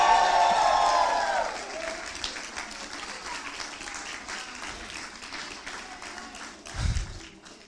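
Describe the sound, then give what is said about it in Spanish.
An audience erupts in loud shouts of victory and cheering that fade within two seconds into sustained, dense applause, steady clapping continuing to the end with a brief low thump near the close. “¿Alguien que lo crea de un grito de victoria?”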